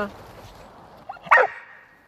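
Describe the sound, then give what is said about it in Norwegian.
A dog gives one loud, sharp bark, preceded by a brief softer yip, standing out against an otherwise quiet background, as it faces a wooden man figure fixed to a sled during a test exercise. “Så da går vi videre til neste øvelse, som er en kjelke som kommer inn og truer på en måte forsvaret til hunden.”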